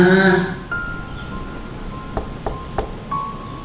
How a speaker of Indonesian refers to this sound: Wah, kaget aku. Belum selesai memanggil mama, suara pintu kamar mandi tiba-tiba diketok.